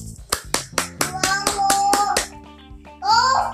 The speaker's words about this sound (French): Il faut que tout le monde applaudisse.